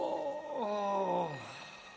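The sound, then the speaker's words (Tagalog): A single drawn-out groan from an elderly person in a bedroom, very loud and frantic, voiced and steady before sliding downward in pitch and trailing off after about a second and a half, heard alone against a quiet background. “Tumayo na ako para buksan na sana ang pinto nang marinig kong umungol ang matanda sa kwarto.”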